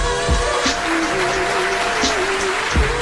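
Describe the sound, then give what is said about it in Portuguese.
An audience applauds in a steady, dense wash of clapping that holds for about three seconds, with a faint sustained tone and occasional low thumps underneath. “Hoje temos aqui alguns dos maiores protagonistas da indústria do nada Palmas para Rita Praia.”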